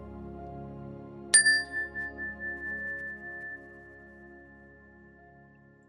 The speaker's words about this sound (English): Um, you can gently close your eyes, and we'll begin the meditation with the ring of the chime, and we'll end the meditation with the ring of the chime.